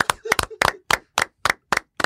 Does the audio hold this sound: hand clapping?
yes